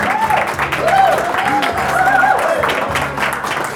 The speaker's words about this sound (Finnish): Siis mä oon ainakin ihan, joo, aplodit.